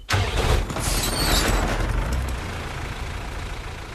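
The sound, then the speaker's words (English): A large truck engine idles with a steady, rumbling drone, while a brief hissing, rattling burst rises over it near the start, then settles back into the even idle. “Gotta make sure all my fluids are filled, tires are good, engine's running smoothly.”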